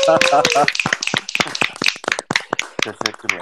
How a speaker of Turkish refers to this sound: başardıysa bir alkış alabilir miyim?